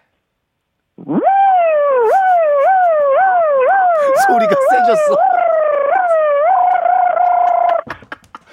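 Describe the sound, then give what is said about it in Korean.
A voice imitates a tow truck (wrecker) siren as a vocal impression trick, performed one more time: a loud, continuous wail whose pitch swoops up and down about a dozen times in quick rhythm before holding a steadier tone. A brief spoken remark follows. “자 레카 한 번 더 하겠습니다.”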